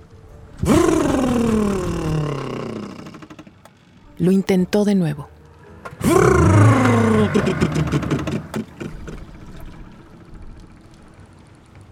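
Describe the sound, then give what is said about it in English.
A boat motor with an empty fuel tank fails to start: a loud sputtering whine sinks in pitch and dies, a short choppy burst follows, then another descending attempt trailing into uneven clatter. A voice speaks briefly between attempts. “I started the motor and it made a strange sound.”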